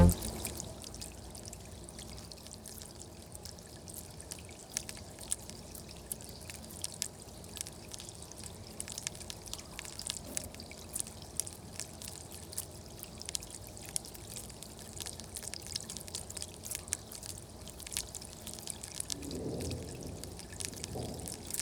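Water flows and pours steadily for the whole stretch, a continuous bright splashing rush dotted with small crackling drips and trickles, with no voices over it.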